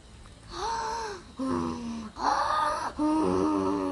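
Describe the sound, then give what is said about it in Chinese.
A voice telling a story imitates a sleeping giant's snoring: four long, loud, drawn-out breaths in a steady rhythm, each a groaning, wheezy rumble with a rising and falling pitch, no other talk. “不一会儿，巨人开始打呼。”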